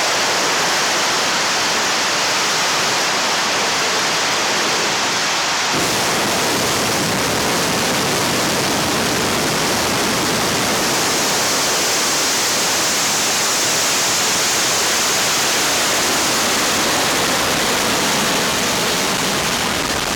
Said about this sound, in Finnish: Tässä nousi matkaan Sojus-kantoraketti, joka on R7 paranneltu ja nykyaikaistettu versio. Ja se on siis käytössä yhä edelleen.